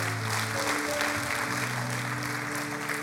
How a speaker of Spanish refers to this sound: Y la iglesia del Señor dice, y la iglesia del Señor dice, dale un aplauso fuerte al Señor en esta mañana.